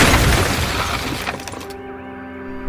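A gunshot shatters a window: a loud, close burst of breaking glass crashes and scatters for over a second, then thin ringing tones linger quietly to the end, with no voices.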